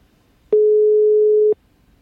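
A single steady telephone ringing tone, a flat mid-pitched beep lasting about one second, sounds clearly and loudly on the line as a call is placed from a studio, with silence before and after.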